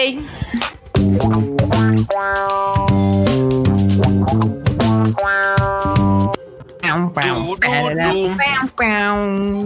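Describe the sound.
The Wani News segment jingle plays loud and upbeat on its own, with bright synth chords stepping through a short melody before a sung, voice-like passage closes it out.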